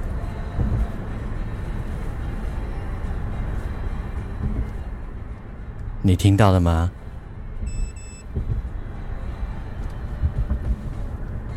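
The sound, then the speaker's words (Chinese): A taxi meter in night-surcharge mode gives two short, high-pitched electronic beeps, quiet against the steady rumble of a moving car, just after a person speaks briefly. “是的，这个是夜间加成，哔哔两声。”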